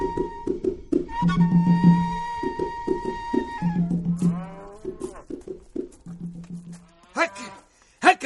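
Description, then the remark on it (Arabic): Several cows moo in long, low, drawn-out calls, one after another, with a few higher-pitched bellows toward the end and some scattered knocks in between. “يعجبك تو هكا كل ليلة صالح يوخر ما يعلفش البقرات بكري”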